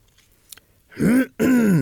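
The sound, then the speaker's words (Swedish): Someone clears their throat twice in quick succession at a horse riding hall, a pair of rough, voiced rasps, preceded by a faint click in otherwise quiet surroundings. “Och så tog jag tygen och sen hör jag hur någon harklar sig.”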